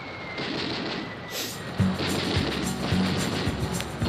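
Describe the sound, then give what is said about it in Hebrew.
Explosion sound effects at the start of a song rumble in a dense wash of noise, with several deep booms landing about every half second in the latter half, heavy, no voices. “זה שיר שמתקרב לאט עם קולות פיצוצים, אבל זה רק בשיר.”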